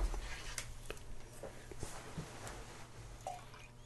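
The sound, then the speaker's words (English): Liquid is poured from one glass into another, with soft trickling, scattered drips and light clicks of glass. It is quiet, with no talking. “You want to blend our glasses?”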